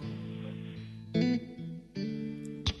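A slow pop ballad plays on the radio station Mix Megapol at moderate volume, with sustained, warm sung notes over soft accompaniment and a couple of brighter swells, with no speech over it.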